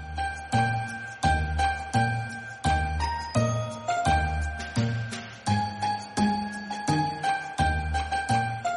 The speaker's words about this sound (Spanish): Así que, bueno, ahora yo dejo a todos ustedes, radio oyentes, amigos, compañeros, escuchar canciones y frases de Navideña.